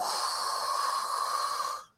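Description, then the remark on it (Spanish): A voice imitates the big bad wolf taking a huge breath and blowing at a house: a long, forceful blow of air, a steady breathy whoosh lasting nearly two seconds before cutting off abruptly. Fairly loud, with no talking. “Y el lobo feroz comienza a tomar una enorme bocanada de aire y sopla.”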